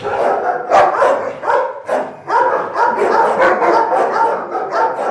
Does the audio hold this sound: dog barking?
yes